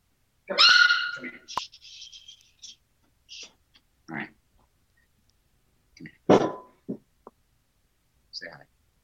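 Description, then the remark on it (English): A dog with its foot stuck gives a loud, high-pitched yelp followed by scattered whimpers, scuffles and sharp clicks over several seconds, with quiet gaps between the bursts. “The dog's foot was stuck in a anyway.”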